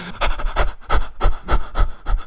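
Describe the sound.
A person pants rapidly, gasping for breath in a quick, steady rhythm of about seven loud, breathy huffs, acting out someone who sees 500 million euros in their bank account, with no words spoken.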